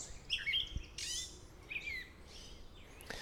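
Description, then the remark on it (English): A gray catbird, a mimid, sings on the Appalachian Trail right next to the listener, a varied string of squeaky, scratchy phrases and chirps, fairly loud, with short pauses between bursts and no talking. “So that is a catbird singing right next to me.”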